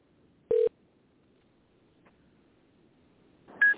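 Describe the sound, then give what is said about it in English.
Two short electronic telephone tones, a lower beep and then a higher one about three seconds later, with near-silence between them, as a phone call is placed to a person. “We're going to phone him.”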